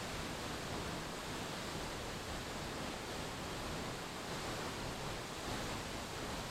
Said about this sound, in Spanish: Visualiza ahora como el agua de la cascada al caer es purificada, liberándose de toda impureza y sanándose en cada gota.